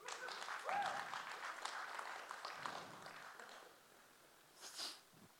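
A short burst of audience applause, dense scattered clapping that is loud at first and gradually thins out, ending with a brief sniff or breathy noise near the end.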